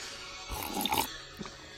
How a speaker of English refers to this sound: I was just slurping on some coffee. I have uh, America's number one almond creamer right now. It is a silk pumpkin spice almond creamer.